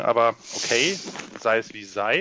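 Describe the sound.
Heavy, hissing breaths blow into a microphone, filling the gaps between a man's short spoken phrases and sounding loud.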